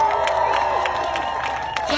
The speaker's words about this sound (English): And if he's here, give him a round of applause he's a genius.